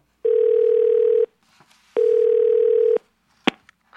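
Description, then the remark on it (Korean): Two long, steady electronic ringback tones of a phone call to the caller's younger child, each about a second, separated by a pause, followed by a brief click; no one speaks. “그래서 제가 한 소리 하려고 작은 애한테 전화를 걸었죠.”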